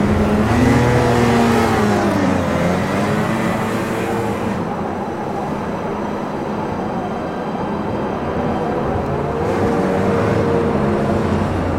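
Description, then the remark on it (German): A rover's engine drones loudly and steadily, its pitch rising and falling as it revs, under a constant roar of rushing wind and blowing sand in a sandstorm. No one speaks. “Hoffentlich kommen wir mit den Rovern gegen den Sandsturm an.”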